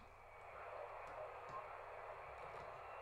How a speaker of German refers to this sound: Das, was man hier so pfeifen, heulen gehört hat, das war FT8, eine digitale Betriebsart.